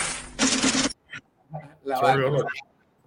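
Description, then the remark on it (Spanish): A brief, loud burst of rapid papery fluttering, like a money counting machine riffling through a stack of banknotes, then stopping abruptly before people start talking. “porque el ruido del dinero te trae felicidad. Claro, porque esos son los fajos.”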